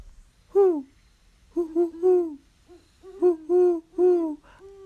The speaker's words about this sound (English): These great raptors don't sing, per se, in the manner of true songbirds like warblers and robins, but the quick cadence of four or five hoots, hoo hoo given by the male, or the lower pitched six to eight hoots